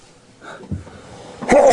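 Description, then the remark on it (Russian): A single sharp sneeze bursts out near the end, loud, after a brief quiet breathy stretch. “Будьте здоровы.”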